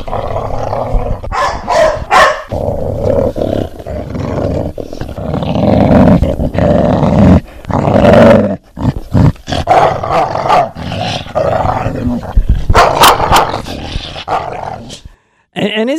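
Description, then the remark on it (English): Dogs growl and bark in rough, overlapping bursts as they play, loud, with playful snarls and yips coming in quick irregular bouts for the whole stretch. “Isn't it so beautiful how two or three dogs have fun together, hopping on and around each other?”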